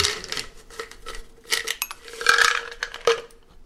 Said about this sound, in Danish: den er jeg nødt til at knuse først med, med en kniv, fordi den er så hård simpelthen. Det er en morter, jeg bruger. Så bliver det fuldstændig sådan, sådan noget fint pulver, ikke?